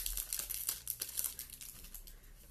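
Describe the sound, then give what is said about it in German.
Continuous crinkling of a foil Alola Vulpix trading card pack being torn open, with irregular bursts of sharp crackles over a couple of seconds and no voices. “das Alola Vulpix Pack. Ja. Ähm. Aber ich krieg's nicht auf.”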